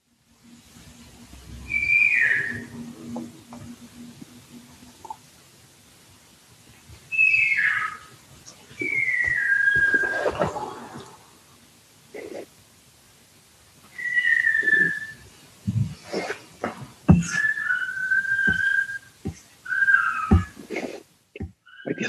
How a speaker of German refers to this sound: viel Freude im Hintergrund zu hören von deinen Kiddies. Ist cool. Ja. Das klingt wie dein ältester Sohn, der gerade vor Freude quietscht. Es ist der jüngste. Ja? Ah, okay, den habe ich noch nie so gehört.